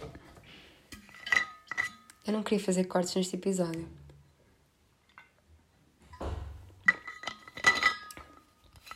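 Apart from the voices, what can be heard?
glass clinking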